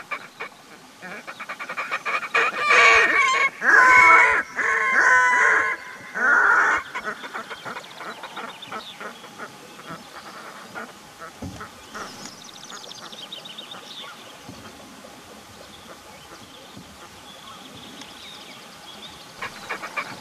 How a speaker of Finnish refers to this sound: Ja siellä sitten tuli kaksi vekkulinäköistä lintua, joilla on, tiesin, että niillä on vekkuliääniä. He esittivät sitten meikäläiselle tällaisen pienen äänellisen näytelmän.